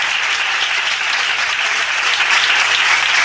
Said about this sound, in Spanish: ¡Aplausos!